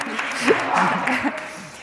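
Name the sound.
brief applause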